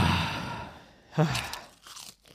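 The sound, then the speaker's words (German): Loud crunching of someone biting into crisp Thai chili prawn crackers, a burst of brittle snaps followed by a few softer chewing crunches, with no talking. “Jetzt höre ich einen Knacken. Ja, aber das sind nur meine ähm, Thai Chili Krabbenchips.”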